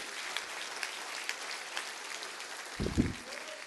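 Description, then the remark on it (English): A church audience claps their hands in rejoicing on Pentecost Sunday, a steady, dense patter of overlapping claps, fairly soft throughout, with a brief low thump toward the end. No one speaks. “Would you clap your hands and rejoice?”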